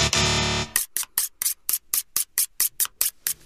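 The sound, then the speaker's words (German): A buzzer: a brief harsh, buzzing burst gives way to about a dozen quick, evenly spaced hissing scrapes, like a knife being whetted in a sushi restaurant with steady back-and-forth strokes. No one speaks. “Das hört sich an wie ein, ein Messer, was im Sushi-Restaurant gewetzt wird.”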